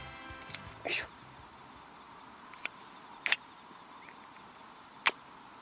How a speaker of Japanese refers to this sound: さあ聞こえましたでしょうかえー、っといつもと録音環境が全く違うからこれが本当に収録されているのかどうか全く分かりませんがただいまレモン堂をの缶を開けたところです